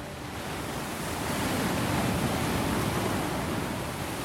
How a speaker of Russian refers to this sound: но природа там просто фантастическая. Вот океан.